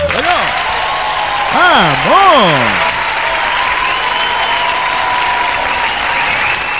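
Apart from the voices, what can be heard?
audience applause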